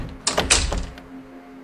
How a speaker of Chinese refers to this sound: 黄潇释然，开门离开。